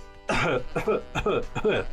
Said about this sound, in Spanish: ¿Qué es la tos? Es un sonido repentino, forzado, puede ser seco, pero también puede tener flemas para librar aire y despejar la irritación de la garganta.